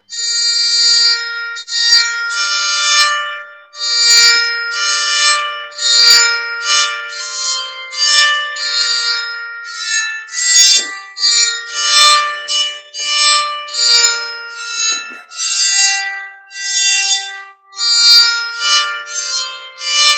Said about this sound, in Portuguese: uma música medieval escandinava bem, bem conhecida, drone Temigen drone